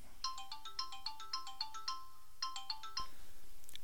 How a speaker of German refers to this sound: Oh, so, ich muss jetzt Schluss machen, mein Telefon klingelt.